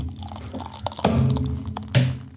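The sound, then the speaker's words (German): A beer bottle with a swan on it pops open with a short, soft plop and then a second sharp burst about a second later, both heard over a low, steady hum with no one talking. “ploppt aber nicht so schön wie deins.”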